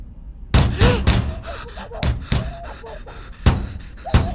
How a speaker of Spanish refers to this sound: Son los del otro vagón. El de adelante. Le están pegando a la puerta.